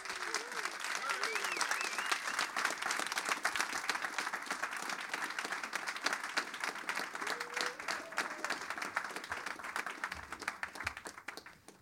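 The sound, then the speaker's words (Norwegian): Steady, dense applause from an audience welcoming two musicians fills the whole stretch, many hands clapping at once with a few faint whoops and cheers rising above it. “Applaus!”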